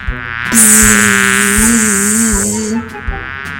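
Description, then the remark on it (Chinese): A loud, steady bee buzz drones for a little over two seconds, its low pitch wobbling slightly up and down as the angry bee chases a little boy, trying to sting him, then cuts off. “蜜蜂被小男孩的大叫声吓到，生气地转过头来。追着小男孩跑，想要叮他。”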